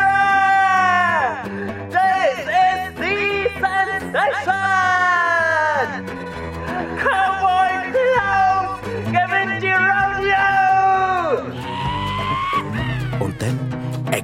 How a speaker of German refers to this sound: Ein Erdbebendonnerjagd durch ganz Arena. … jubelnd und tragen der Cowboy Klaus durch das wild applaudierende Publikum und blau-rot-silbriges Konfettigestöber.